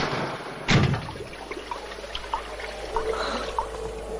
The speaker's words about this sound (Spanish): Más tarde, Paco vierte agua con sus manos sobre las heridas.